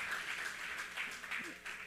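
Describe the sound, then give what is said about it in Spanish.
A crowd applauds the house at a gathering of young people spending carnival together, with dense, steady clapping that holds at a fairly even loudness for about two seconds, with a few voices faintly mixed in. “Un aplauso para esta casa.”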